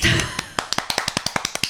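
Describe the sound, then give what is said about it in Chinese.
A short burst of voice at the start gives way to a quick, steady run of about a dozen sharp hand claps, crisp and evenly paced. “请听电波的朋友跟我们一起鼓掌。”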